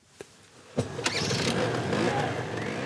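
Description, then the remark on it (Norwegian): A moped's small engine sputters to life after a couple of sharp clicks, then settles into a steady, buzzing idle with slight revving, fairly loud. “Tre jenter på hver sin moped.”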